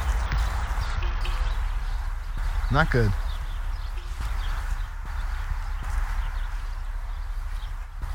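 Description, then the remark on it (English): A steady wash of street traffic beside a dog park rumbles continuously, with a brief rising squeal partway through and a person speaking briefly over the background noise. “Hear a lot of street noise.”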